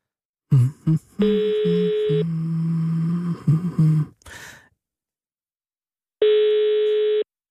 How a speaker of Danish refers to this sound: Men jeg synes, jeg kan høre, jeg synes ikke, den her ringe lyder ikke som om, den ringer i et tomt hjem. Jeg synes bare, den ringer i et hjem, hvor man har travlt med noget